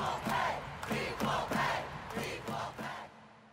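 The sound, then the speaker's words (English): A large stadium crowd of soccer fans chants "equal pay" in unison at the 2019 championship won by the U.S. women's soccer team, the short rhythmic phrase repeating steadily several times, loud and echoing with no other voices standing out. “there were fans chanting equal pay in the stadium.”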